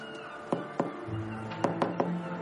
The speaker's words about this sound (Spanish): Argamasilla y su acompañante se acercan a una puerta de madera sin rótulos identificativos. Gromek llama a la puerta.